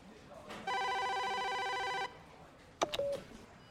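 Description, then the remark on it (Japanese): A telephone at a mail-order company's customer complaints desk rings once with a loud, steady electronic trill lasting over a second, then a sharp click and brief clatter like the receiver being picked up. “あの電話を取るまでは、”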